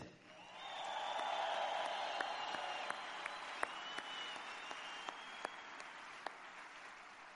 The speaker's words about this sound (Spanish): Así que creo un fuerte aplauso para todos ustedes.